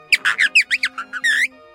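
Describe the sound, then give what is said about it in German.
A quick burst of chirpy, warbling bird-like whistles from a bird-call whistle held against the palate, about eight short trilling notes in rapid succession, ending in a longer wavering tweet, fairly loud. “Ich tue mir jetzt das Vogelpfeifer rein”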